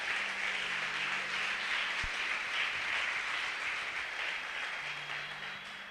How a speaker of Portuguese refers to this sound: Você pode dar uma salva de palmas para Jesus bem forte.